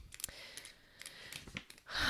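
A pen clicks several times in quick, irregular bursts as someone plays with it, quiet, ending with a soft breathy sigh.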